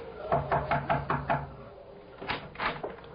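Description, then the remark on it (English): Five quick knocks rap on the wooden door of a house at night in an even rhythm, fairly loud, followed after a short pause by two more spaced knocks. “I crossed the driveway, rapped on the door.”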